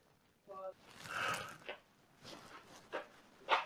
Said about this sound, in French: Gros chien.